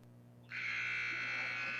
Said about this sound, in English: And just as he releases the free throw, he, the horn sounds. And, and that will do it. We head to the fourth quarter with a running clock.